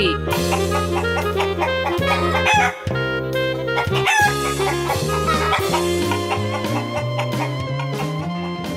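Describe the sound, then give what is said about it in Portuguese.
A chicken clucks busily and a rooster crows, loud, over a steady backing tune that runs continuously for several seconds with only brief dips, introducing another adventure of the Galinha Viajante (Travelling Chicken). “agora mais uma aventura da Galinha Viajante.”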